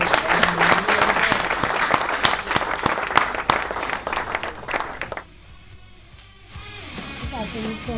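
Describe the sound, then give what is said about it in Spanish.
A burst of loud audience applause welcoming a young musician presenting his first album, dense and steady for about five seconds, then dropping away abruptly as a voice begins speaking over the fading claps. “pido un aplauso para él muy fuerte.”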